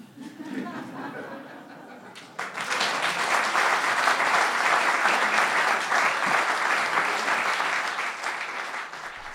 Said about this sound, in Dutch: Dat applaus klonk voor Marcel Faber, die het verhaal De sinaasappel van Benjamin Rosenbaum voorlas op 28 december vorig jaar in Theater Bouwkunde Deventer.